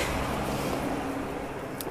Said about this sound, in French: Et le camion passe en même temps.